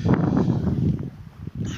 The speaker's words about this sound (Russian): а то сейчас так тяжело слушать, ветрено.